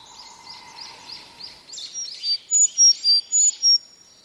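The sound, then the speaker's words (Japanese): A Sakhalin leaf warbler sings a high, thin series of repeated notes, soft at first and then louder and closer, with the final few bright notes evenly spaced, as it keeps moving from branch to branch. No one speaks. “先ほどから泣いては枝移りしてまた泣いてとせわしないエゾムシクイですが動きが速くてほとんど姿が見えません。”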